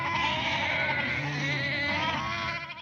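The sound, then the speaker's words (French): A flock of sheep bleating together, many overlapping calls forming a dense, continuous chorus that stays steady and fairly loud before easing off at the very end. “La fille se fit un peu attendre, mais elle finit par paraître, solaire, entourée des jolis nuages immaculés que formait son troupeau de moutons.”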